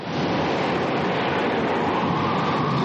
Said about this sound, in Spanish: Franklin mueve el timón con rapidez. Una ola rompe el cristal del puente y tira a Franklin al suelo.